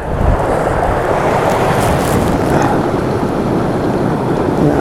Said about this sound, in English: The storms have passed and this wind is the last kind of trailing edge of Dennis, I think.